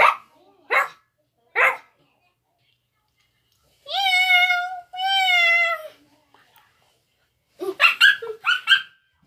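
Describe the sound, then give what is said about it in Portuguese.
A child's voice imitates a cat with two drawn-out, high-pitched meows in quick succession, clear, with a few short vocal bursts before and after. “O meu animal que eu vou imitar agora é o gato. Miau, miau.”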